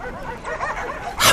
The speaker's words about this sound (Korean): 늑대보다 강하다는 도사견의 죽음을 본능적으로 직감한 듯 마을 쪽에서 개들이 짖기 시작했다. 적을 보고 경계하기 위해 짖는 소리가 아닌 듯했다.